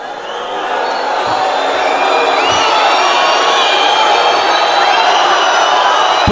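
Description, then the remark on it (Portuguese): A large audience at a political candidate's campaign launch in Argentina in late 1998 cheers and roars continuously, with scattered whoops and whistles rising above the dense, sustained wall of noise. No distinct voices stand out. “Mas dada a reação da plateia. Também poderia ser o Menem.”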